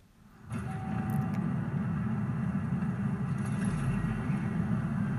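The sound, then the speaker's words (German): After a brief quiet moment, a loud, steady low rumble swells in and holds, like a car engine running inside an aircraft as its hatch opens to the roar outside; the car is a yellow off-road vehicle, thought to be a Ford. “Okay, wir sind in einem Flugzeug, wo sich gerade die Luke öffnet und sitzen in einem Auto.”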